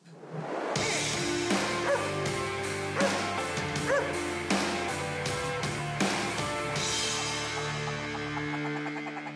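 A short, loud music jingle plays alone: a full, bright arrangement with a steady beat of sharp accents roughly every second, ending on a sustained chord that rings out and fades.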